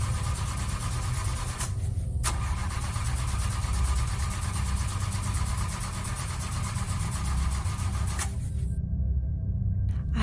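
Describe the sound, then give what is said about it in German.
A car engine rumbles loudly and steadily, its rough tone shifting briefly near the start and again toward the end, with no voices. The car is making strange noises on a narrow hill road near the Inunaki Tunnel, shortly before its engine fails. “Kurz vor dem Inunaki-Tunnel gab das Auto noch komische Geräusche von sich und als sie auf der anderen Seite herauskamen, versagte der Motor des Fahrzeugs”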